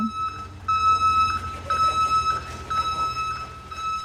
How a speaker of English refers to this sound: Every few minutes, a truck backs into the covered garage to dump a load of garbage for the compactor to crush.